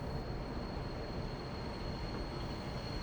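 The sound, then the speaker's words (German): A steady rumble of a crowded special passenger train, packed with people and luggage, rolling along the rails from the Polish border to Leipzig, with a constant low roar and a faint high whine running through the whole stretch; no one speaks. “Die beiden sitzen eingeengt zwischen vielen Menschen und Gepäck in einem zweiten Sonderzug, der von der polnischen Grenze nach Leipzig fährt.”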